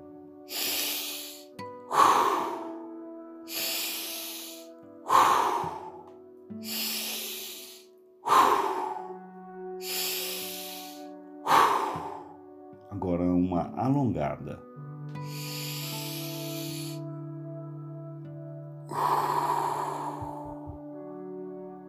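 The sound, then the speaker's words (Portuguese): Four short, forceful, noisy breaths in a steady rhythm, loud, followed by a longer drawn-out noisy breath, done as a breathing exercise; a gentle tonal background hum runs underneath. “Quatro respirações rápidas e barulhentas e uma respiração alongada e também barulhenta.”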